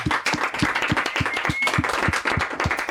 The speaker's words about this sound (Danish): I må gerne klappe.